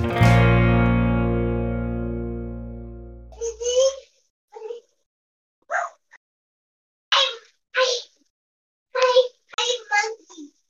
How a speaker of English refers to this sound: yeah, when you're playing a horror game, the unexpected sound of a small child is very creepy